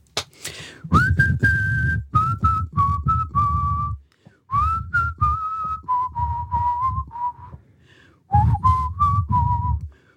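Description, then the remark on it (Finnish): Someone whistles a melody in clear, sustained notes grouped into short phrases with brief pauses, fairly loud, over a low rumbling background. No one speaks. “No yleensä on ne mun vihelykset.”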